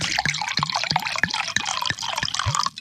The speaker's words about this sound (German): Zack. Klingt gut. Und dann schenke ich mal gratis ein bisschen Ida.